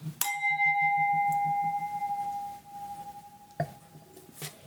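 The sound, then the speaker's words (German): Glasses clink in a toast: a bright glass clink rings out and sustains with a clear, bell-like tone, followed by a second softer clink a few seconds later, over quiet background murmur. “Ich freue mich, also Prost. Prost.”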